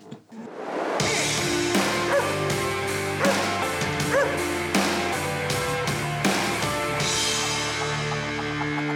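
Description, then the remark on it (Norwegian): A loud, upbeat musical jingle plays for several seconds with steady rhythmic hits, and dog barks appear to be mixed into the music. Nobody speaks over it. “Skal vi bare kjøre jingle og ringe Geir, da, eller?”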